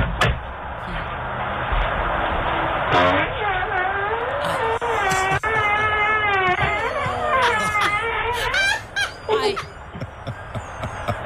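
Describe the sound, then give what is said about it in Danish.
A man who steps outside thinking he is alone lets out a long, loud fart that squeaks and wobbles in pitch for several seconds. It is recorded on the tinny microphone of a motion-triggered video doorbell over a constant background hiss. No one speaks. “og så kan man lette en vind”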